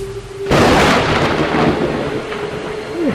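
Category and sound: nature, thunder crack with rain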